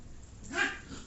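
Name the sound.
dogs barking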